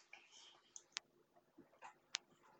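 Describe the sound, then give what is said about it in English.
A few keyboard keys click at irregular intervals, with two sharp louder clacks standing out over softer taps and faint background noise; no one speaks. “these type of keyboards. So like this.”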